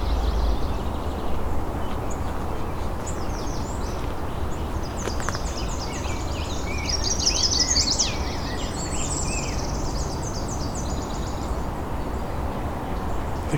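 A chestnut-sided warbler sings a bright, high-pitched song of quick repeated notes, fairly close up, most prominent midway through, over steady outdoor background hiss with other faint bird calls.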